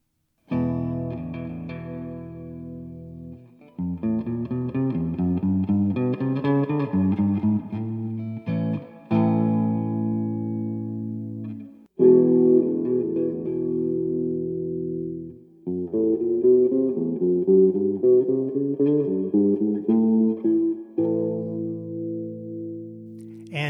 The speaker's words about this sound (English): that was a comparison between a clean guitar sound and the sound from an amplifier with built in reverb.